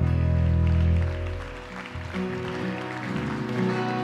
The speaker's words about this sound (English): Come on, one more time. Put your hands together. Give the Lord a hand clap.